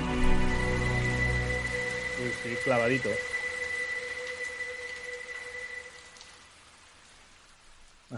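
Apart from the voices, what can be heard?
rain falling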